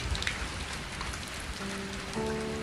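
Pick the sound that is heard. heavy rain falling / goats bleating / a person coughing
heavy rain falling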